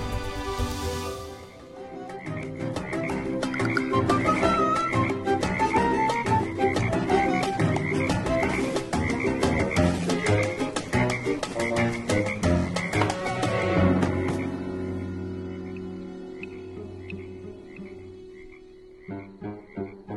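A dense chorus of frogs croaks loudly and continuously, overlapping calls pulsing rapidly, then thinning to a quieter, steadier drone with scattered croaks near the end. No one speaks.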